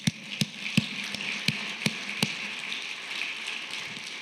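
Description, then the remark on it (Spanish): A church audience applauds for Jesus in a dense, steady patter of clapping, with a few louder, evenly spaced claps standing out during the first couple of seconds before it settles into a continuous wash. “Den un aplauso a Jesús.”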